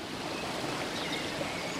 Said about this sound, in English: I hear water nearby.